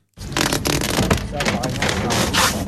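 A poster is ripped off a bus stop panel by a worker changing the stop's displays to post new CETRA bus timetables, a continuous rough tearing and crackling of paper with several sharper surges, loud for a few seconds.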